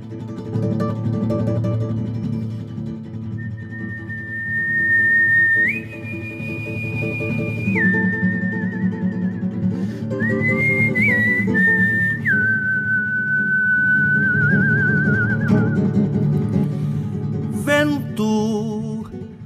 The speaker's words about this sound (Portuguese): Uh, vamos então escutar alguma música aí que nos remeta à questão da pampa.